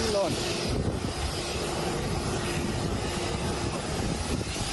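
A loud, steady roar of a twin-engine airplane's engines as it lands at the airport in Mogadishu and veers off the runway, continuous for several seconds, with a dense rushing noise and a faint tonal hum underneath.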